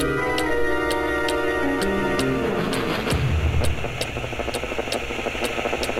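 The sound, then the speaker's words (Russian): An old reel-to-reel tape recorder found in an attic runs with a steady wash of strange white-noise hiss, a low mechanical hum and evenly spaced ticking clicks, moderately loud, with no voices. “Все идет своим чередом, пока они не замечают странный белый шум, издаваемый магнитофоном.”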